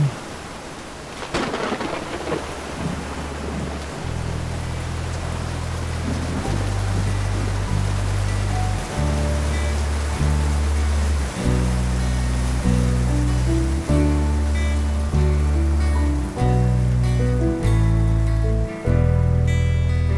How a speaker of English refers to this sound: In a moment, Abby and Sonny were walking home through a hard rain